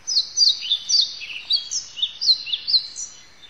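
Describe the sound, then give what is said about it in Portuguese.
Birds sing in a steady stream of quick, high chirps and warbling trills, clear, with no voices and little background noise. “Quando a gente fala o canto dos pássaros”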